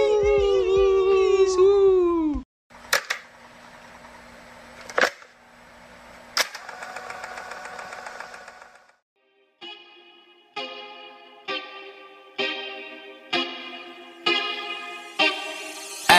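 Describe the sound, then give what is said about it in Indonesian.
A song intro is played on air after the first segment, loud, with heavily effected, chorus-drenched synth tones, sharp percussive hits, then a rhythmic pattern of repeated stabs building steadily, with no talking over it. “kalau sudah segmen satu akan kami putarkan sebuah lagu ya lagunya, denger aja dah nanti dah lagunya apa dengar aja sendiri hmm, hmm, denger aja nanti”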